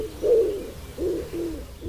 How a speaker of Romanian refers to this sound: Cu siguranță suntem mai degrabă familiarizați cu cântecul porumbelului gulerat, un guruit sec, înăbușit, alcătuit din cinci silabe repetate de 3-5 ori fără pauză.